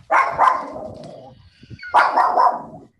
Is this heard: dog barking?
yes